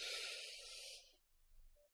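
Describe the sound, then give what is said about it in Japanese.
A voice imitates a long, steady inhale through the lips, like drawing on a cigarette: a breathy, airy hiss lasting about a second before fading into near silence. “タバコ、ね、タバコって、ね、そんなにあのね、こう、長めになんかこう”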